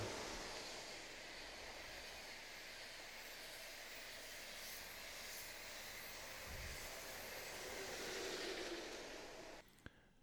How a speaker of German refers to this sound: Hier fährt der Intercity Express direkt an der Dampfbahn vorbei. Ein Bild für die Götter.